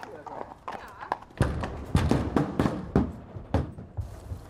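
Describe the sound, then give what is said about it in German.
Hooves of mounted police horses clop on a hard surface in an irregular series of sharp knocks, with faint murmuring voices and outdoor ambience underneath, in the Englischer Garten, a large park in Munich, Germany. “Diese Polizisten und Polizistinnen sind also nicht mit dem Polizeiauto, dem Hubschrauber oder auf dem Fahrrad auf Streife, sondern eben auf Pferden.”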